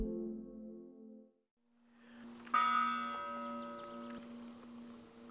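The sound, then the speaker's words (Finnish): Chapel bells toll at Monna cemetery in Rauma, one deep stroke fading into a low hum before another loud, resonant strike rings out and lingers with shimmering overtones. No voices are heard. “Kappelin kellot kumajavat Monnan hautausmaalla Raumalla”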